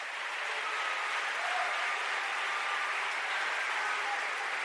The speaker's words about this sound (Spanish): cuando le dan gloria al nombre del Señor? Ah, gloria al nombre del Señor. Ese aplauso fuerte.